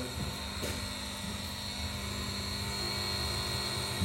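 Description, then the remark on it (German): A steady, continuous hum of ventilation fans in an agency, with a low droning rumble and faint high tonal whine, holding an even level throughout with no voices. “Ja, hier knarzen Türen, hier laufen Lüfter,”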